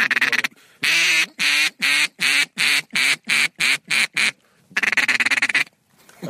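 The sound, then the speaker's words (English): A duck call is blown to lure a duck that has just emerged: a rapid series of loud, nasal quacks, about ten evenly spaced blasts in a descending run, then a brief pause and a faster chattering burst of quacks. “Heath, if you would give us a quick little uh, duck call as I just saw one emerge.”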